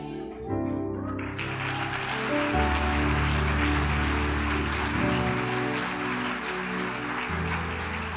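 audience applause

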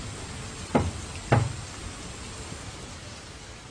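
knocking on window glass

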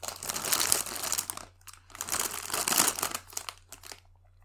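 paper rustling

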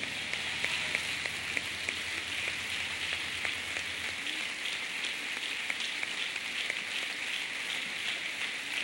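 audience applauding

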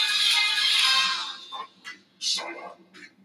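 music playing

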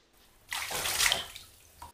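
bath water splashing

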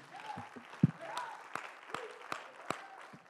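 audience clapping

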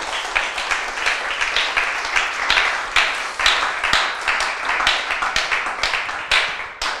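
audience applauding

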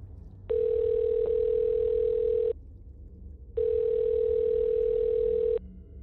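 phone ringback tone

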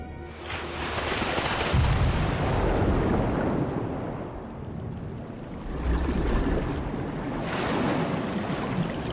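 ocean waves

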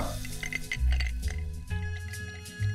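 drink being poured

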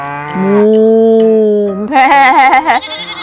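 farm animal sounds

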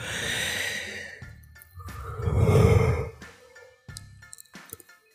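person yawning

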